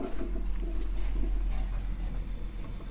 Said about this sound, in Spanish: ¿Escuchen la cafetera?